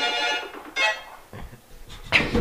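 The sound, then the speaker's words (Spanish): A phone alarm tone sounds in short electronic bursts, bright, repeating a few times with brief gaps as the phone's volume is being turned down, the alarm sounding to show the volume level. “Mm, no, mira, estaba bajando el volumen y cuando bajo el volumen suena la alarma para ver a qué volumen está.”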